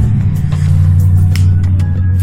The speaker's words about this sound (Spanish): es que iba pasando el carro.